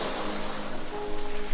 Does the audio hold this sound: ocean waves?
yes